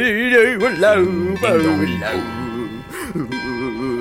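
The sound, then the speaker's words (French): A voice imitates church bells ringing, sung in a steady repeating ding-dong pattern, fairly loud, with a wavering melodic tone and no real bells audible. “Ding ding ding dong, ding ding ding dong, ding ding ding dong, ding ding ding dong.”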